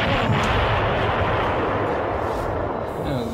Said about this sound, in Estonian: plahvatused ees, taga, kõrval, igal pool